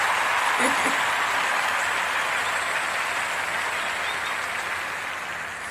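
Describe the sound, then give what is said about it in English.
Steady, dense clapping fills the whole stretch, loud, like a crowd applauding together, tapering slightly toward the end. “So, first, we're going to give you a round of applause for showing up.”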